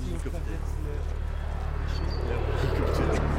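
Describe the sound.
A helicopter's deep, steady rotor drone fills the whole stretch, a continuous low throbbing that swells slightly louder toward the end, with faint voices murmuring beneath it.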